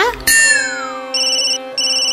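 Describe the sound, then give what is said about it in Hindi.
A phone ringtone for an incoming call plays loudly: a bright tonal chime with a falling sweep, then two bursts of a high repeating ring, with no talking. “माता आपके भक्त आशिक अली का कॉल है”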